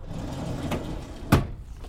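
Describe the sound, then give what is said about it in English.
A filing cabinet drawer, in a wall bank of filing cabinets, slides open with one short scrape-and-clunk as someone goes to take a file, preceded by a faint knock, all over a steady low background rumble with no voices. “There should be a wall bank of filing cabinets on the far side of the room.”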